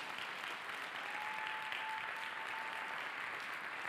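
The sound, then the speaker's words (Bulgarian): An audience applauds steadily, a dense, even wash of many hands clapping that holds at a constant level for about four seconds with no voices over it. “О, начина по който ръкопляскаш ми показва, че ти си мислиш, че тези пари, които имаш в джоба ти са истински.”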